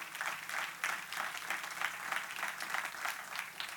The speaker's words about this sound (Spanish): Den un aplauso al Señor en esta hora.